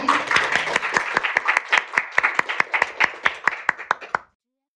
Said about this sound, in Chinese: 好了，我把这个讲台交给我们范老师，掌声响起。